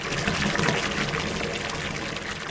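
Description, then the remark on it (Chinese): Water from a bucket pours into a deep ditch dug in sand around sand castles, a steady, continuous splashing stream, a broad hissing rush that stays fairly even for a couple of seconds with no one talking. “他提了很多很多很多的水，倒了进去这个水沟里面。”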